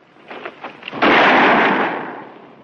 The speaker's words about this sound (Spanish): En un gesto rápido, Ben desenfunda y mata al caballo cojo.